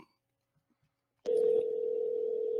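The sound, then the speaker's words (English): After a stretch of near silence, a click opens a steady, fairly loud electronic telephone tone on an outgoing call, holding one even pitch until the end, with no voices. “It's ringing.”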